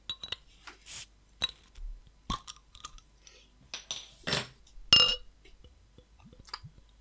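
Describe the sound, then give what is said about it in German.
A small beer bottle cap drops onto a tabletop with a few sharp clinks and rattles, fairly quiet, amid faint handling noises and light clatter. “Ah, ich habe gehört, wie der Deckel gerade auf den Tisch gefallen ist.”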